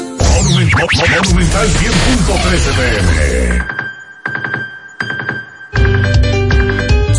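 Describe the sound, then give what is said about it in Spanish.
A loud, busy burst of mixed sound gives way to an alarm ringtone ringing in short repeated pulses with brief gaps between them, electronic, before swelling back to full volume. “Esta es la alarma que te pone a gozar y ahorrar chelitos con Vivi Economy.”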